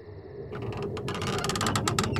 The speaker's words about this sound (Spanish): Se lo quiere contar a su padre, pero la habitación parece vacía. Hasta que se acerca al baño y empuja la puerta.